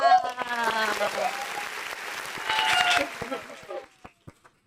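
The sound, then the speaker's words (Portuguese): An audience in Rio de Janeiro bursts into loud, dense applause mixed with cheers and whoops, sustained for about four seconds before thinning out into a few scattered final claps. “Minha gente, uma sala de palmas.”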